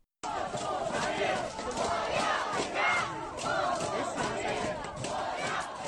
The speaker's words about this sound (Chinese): 这段声音是广东惠州市大亚湾区的居民小区华润小径湾的业主们在十月六日聚集起来进行抗议时喊出的口号。